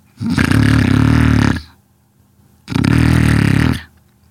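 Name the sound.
loud snoring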